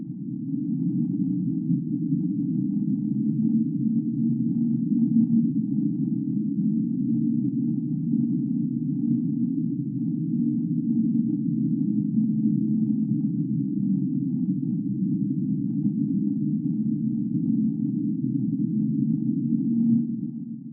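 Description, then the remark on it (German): An underwater ocean sound known as the Whistle, recorded by NOAA: a steady, low droning tone that holds at an even loudness for about twenty seconds, with a faint higher thread above it and no voices. “Das, was ihr gerade gehört habt, wird von der Noah oder von den Leuten, die es gehört haben, als Whistle bezeichnet.”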